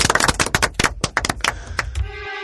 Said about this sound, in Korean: 오늘 긴 시간 동안 네. 어, 전당포를 책임져 주신 이 두 분께 큰 박수로 한번 마무리를 해보겠습니다. 수고하셨습니다. 감사합니다.